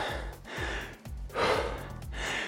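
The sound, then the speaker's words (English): Heavy, labored breathing after a hard exercise interval, with heart rate around 140: a quick, steady rhythm of loud, rasping inhales and exhales with a slight voiced gasp, about five breath cycles and no talking. “But certainly did, we can tell by how heavy I'm breathing this time”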